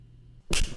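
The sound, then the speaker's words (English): After a near-silent moment with a faint low hum, one sharp, loud, hard slap cracks out, then trails off quickly. No one speaks. “I cannot take another slap.”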